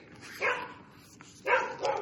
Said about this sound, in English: Dogs will bark in the background.